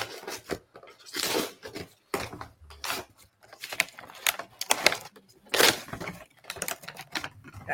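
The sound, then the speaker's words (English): Wrapping paper being ripped and torn off a gift in a run of irregular, crackly bursts, some short and sharp, others longer rustling tears, fairly loud with brief pauses between them and no talking. “Don't you feel bad ripping that nice?”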